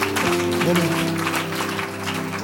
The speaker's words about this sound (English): Clap your hands.